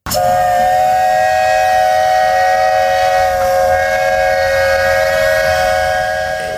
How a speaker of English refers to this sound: To this day, I flash back to Disney when I hear a boat or a train whistle.